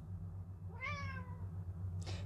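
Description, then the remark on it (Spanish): A single drawn-out cat meow, rising then falling in pitch, clear over a steady low hum, followed by a brief soft rustle. “Vamos, gato.”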